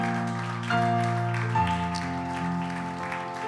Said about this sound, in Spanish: Dale un aplauso porque Él se lo merece. Él es merecedor de nuestra adoración. Amén.